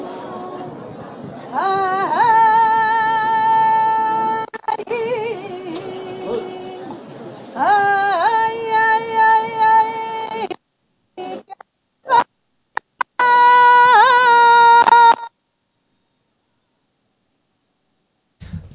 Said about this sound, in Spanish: el segundo toque de campana se arría el paso justo en medio de esta plaza, en el lateral de la puerta del patio de, de la Madalena. se escucha la primera saeta.